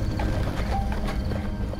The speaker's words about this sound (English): They stepped out the back door, climbed up on the bench seat in the front, snapped the reins, and let the horses take them away at a trot.